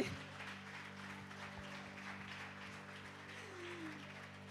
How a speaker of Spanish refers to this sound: Un aplauso